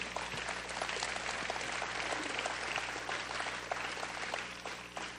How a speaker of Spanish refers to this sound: Denle un aplauso a Dios.